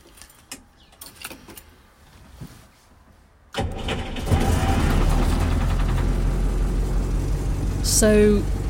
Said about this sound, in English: this is just the sound of another car starting. But to Andy, this represents something slightly different. This is his Land Rover